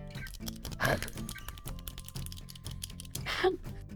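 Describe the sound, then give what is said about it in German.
A ballpoint pen being fiddled with: a steady scatter of small clicks and taps at an irregular pace, broken by a couple of louder scraping bursts. “Willst du deinen Kuli noch hinlegen oder machen wir noch eine.”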